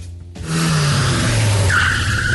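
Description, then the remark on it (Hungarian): A car engine roars up loudly, then tires break into a sustained high screech as the car drifts, with no voices. “Most lefarkolunk, de jövő héten megint indexelünk és kanyarodunk, előzünk és tolatunk”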